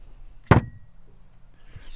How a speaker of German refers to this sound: Das ist ja so ein satter Klang, wenn man den irgendwie auf den Tisch fallen lässt. Also das ist schon also wirklich sehr stabil, sehr windfest.